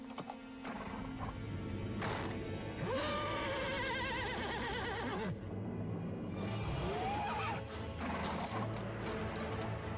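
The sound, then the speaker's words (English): Horses neigh loudly, with two distinct quavering whinnies rising and falling a few seconds apart over a constant noisy background. No one speaks. “Oh, horses.”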